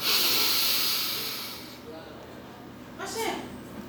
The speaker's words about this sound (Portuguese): Respire profundamente mais uma vez, inspirando.